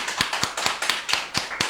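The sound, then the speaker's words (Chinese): Steady, rhythmic hand clapping on a radio program for a guest about to sing another song: about eight crisp claps in an even beat, moderately loud, with no voices over it. “来，我们给掌声。”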